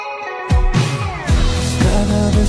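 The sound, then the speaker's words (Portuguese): A recently released Latin American pop single plays loud, with sustained melodic instruments layered over a deep bass beat that thumps every half second or so. No vocals come through in this short stretch. “lançaram agora recentemente um single que está conquistando os corações latino-americanos.”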